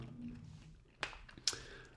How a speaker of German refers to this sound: Oder musst du noch kauen?